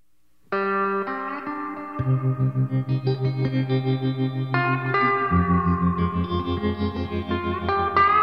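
A live band plays an instrumental song: sustained, echo-drenched guitar lines over a steady pulsing low rhythm that kicks in after a soft opening, loud with no voices.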